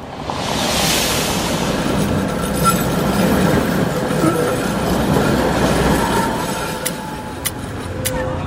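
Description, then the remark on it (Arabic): A train or tram in Shuafat rumbles steadily along the rails, a dense continuous roar with faint metallic squeals and a few sharp clicks toward the end. “فجر الأربعاء الثاني من يوليو عام 2014 فمع إقلاع أول قطار أو ترام عند الساعة الخامسة والنصف فجرا”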